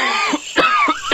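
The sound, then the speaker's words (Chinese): An old man, a grandfather, coughing: four harsh, rasping coughs in quick, uneven succession with a throaty, hoarse edge, fairly loud, with no talking. “这时啊，米卡听见有人在咳嗽，他转过身一看，原来是爷爷。”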